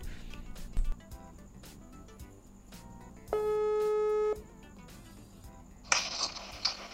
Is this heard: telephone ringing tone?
yes